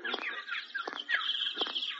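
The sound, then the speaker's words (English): Bright, chattering calls of a woodpecker at a zoo repeat steadily over about two seconds, broken by a few sharp bursts, moderately loud with no talking. “That's a woodpecker.”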